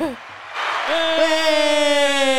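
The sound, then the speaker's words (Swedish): After a moment of talk, a crowd cheering and applause sound effect, played from a mixing board, swells up and holds steady, with a long, bright whoop ringing out above the clapping. “Ska vi ge gubbjäveln en applåd?”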